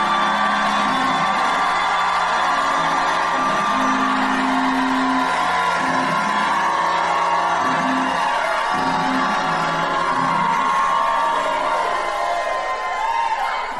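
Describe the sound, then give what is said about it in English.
An audience at a worship service roars with sustained shouting, whooping and cheering, loud and continuous throughout, with overlapping voices and scattered yells filling the space. “Now shout like you never shouted in your life.”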